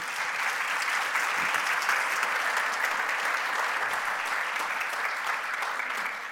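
A church audience applauding a speaker steadily for several seconds, a dense, even wash of many hands clapping at once, sustained without a break, with no talking over it.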